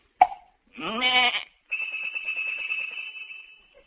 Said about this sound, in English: He said, a lot of sheep have bells, for these sheep are tuned so as to make the chromatic scales which he makes use of by knocking the sheep on the head with his crook, a signal to them to ring the bell. He do it like this.